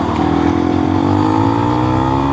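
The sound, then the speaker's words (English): A motorcycle engine revs hard and steadily climbs in pitch as it accelerates on a road, the rider trying to get away from a car, loud, with no talking over it. “Oh, the motorcycle rider's trying to get away from him.”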